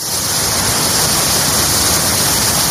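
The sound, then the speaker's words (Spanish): The swollen Ebro river rushes past in Logroño, La Rioja, Spain, near its flood peak, in a loud, steady roar of churning water, continuous, with no voices or other sounds breaking through. “A su paso por Logroño, el Ebro ha pasado de esto a esto.”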